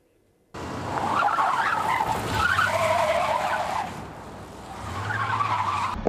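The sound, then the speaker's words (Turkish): Tires skid and squeal loudly for several seconds over a low rumbling engine, easing off briefly before a second screeching skid, as a dump truck loses control, crosses the barriers into the opposite lane and hits two moving cars in Silivri, Istanbul, Turkey. “Hafriyat kamyonu sürücüsü direksiyon hakimiyetini kaybetti. Bariyerleri aşarak karşı şeride geçti. Seyir halindeki iki otomobile çarptı.”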